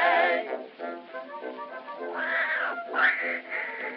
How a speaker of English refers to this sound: Listen, my goodness, sister, what is that hideous noise? Why, that's Tiny, my beautiful little Maltese cat.